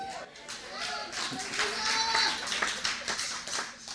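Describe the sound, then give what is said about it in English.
A run of sharp hand claps repeats steadily at a moderate pace, fairly loud, while a voice vocalizes over them, its tone rising and falling. “Sometimes you just got to clap your hands and hiss the enemy away.”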